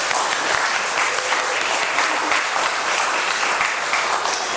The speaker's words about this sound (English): we can just give a little applause for Ron and Barbara Andreessen